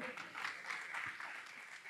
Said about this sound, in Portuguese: Amém, meus irmãos? Você pode levantar suas mãos e aplaudir ao Senhor?